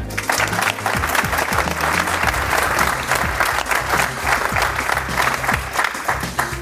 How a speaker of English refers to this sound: Um, alrighty, um, I hope you'll give the audience, uh, not the audience, give yourselves, but our panel, our wonderful panel, a round of applause.